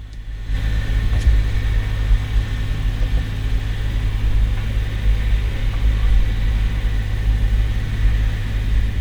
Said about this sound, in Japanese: えっとですね、今、3月27日のお昼なんですけど、この音聞こえますかねあのトラクターの音が